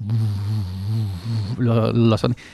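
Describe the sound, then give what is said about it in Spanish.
A voice imitates the buzzing of 200 to 300 angry horseflies, stirred by hatchet blows on an olive tree trunk, with a steady, low buzzing drone that grows rougher and more wavering toward the end, loud and alone without any talk. “Era el zumbido el zumbido de 200, 300 tábarros enfurecidos, claro, escuchaban los golpes en el, propio tronco olivo, así.”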